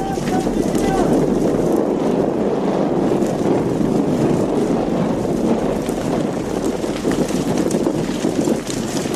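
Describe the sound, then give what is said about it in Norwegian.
Strong wind roars steadily during a house fire at Kyrkjeteigen in Lærdal, increasing and briefly turning 180 degrees around; a dense, loud rushing noise that buffets the microphone throughout without any pause. “Vinden øker kastes i noen sekunder 180 grader rundt.”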